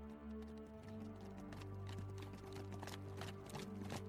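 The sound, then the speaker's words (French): Horse hooves clip-clop in a steady, repeating rhythm, moderately loud, with a low sustained hum beneath; no one speaks. “Maintenant, tu vas t'imaginer en pleine journée sur un cheval.”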